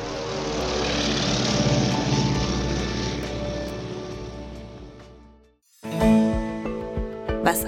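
Droning British propeller aircraft engines pass overhead while the aircraft drop leaflets over Germany, a loud, steady throbbing roar that swells and then fades away before cutting off abruptly, followed by a brief, different clattering sound.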